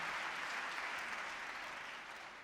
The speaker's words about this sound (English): Ladies and gentlemen, please applaud once again